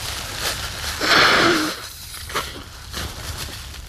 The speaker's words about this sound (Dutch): Even, even, mijn neus snuit eventjes.